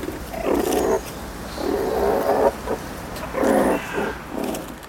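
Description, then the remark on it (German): Meerkats growl and purr in rumbling bursts while gathering at a cardboard roll studded with apple pieces to feed, four or five throaty stretches broken by brief pauses, with a faint scratchy background. “Die knurren und schnurren.”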